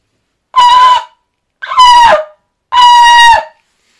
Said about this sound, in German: So, ich habe hier ein Schofahorn, ich versuche da jetzt mal kurz reinzublasen. Also, falls ihr Kopfhörer anhabt, bitte Achtung. Äh, ich kann das zwar nicht so richtig, aber es könnte lauter werden.